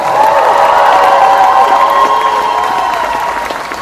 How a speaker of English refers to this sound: Then with me in the case, I want you to put your hands together, stomp your feet, make some noise with your mouth, and go crazy and say thank you one last time to Mr. Billy Zane.